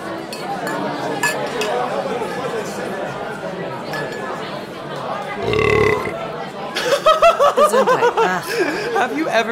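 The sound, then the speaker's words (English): A loud, low, buzzy fart, an attempt to fart in 16th notes, erupts amid background chatter and clinking dishes, followed by a burst of rhythmic, pulsing laughter. “tried to fart in 16th notes.”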